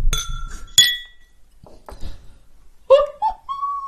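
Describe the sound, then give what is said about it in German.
Two bright glass clinks ring out close together near the start as glasses are clinked in a toast, followed by softer clattering and a few quiet voices murmuring in the background. “Darauf ein Stößchen, hier.”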